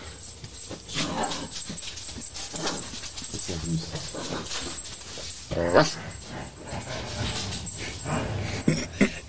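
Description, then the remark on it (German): A small dog whimpers and yips repeatedly while running past, its restless noises continuing throughout, with a person briefly speaking over it. “Jetzt können wir auch mal kurz Pause machen, während der hier vorbeirennt und Krach macht.”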